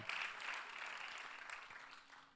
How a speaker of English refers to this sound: By the way, at our church, if one person claps, everybody got to clap.